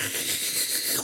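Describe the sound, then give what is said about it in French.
A voice mimics the Minecraft water flask drinking sound, a breathy, hissing gulp lasting about a second, with no talking. “Ça, c'est le bruit de la gourde dans Minecraft.”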